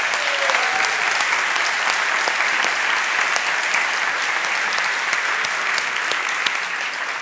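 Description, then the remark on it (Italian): A crowd claps steadily and loudly for several seconds as a live show's band is introduced, a dense, continuous wash of applause with no pauses and no one talking over it. “Beh, ah, eh, vi devo presentare anche la band che farei un grande applauso”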